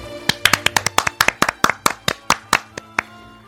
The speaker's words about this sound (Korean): 두 분이 응원해 주세요. 박수.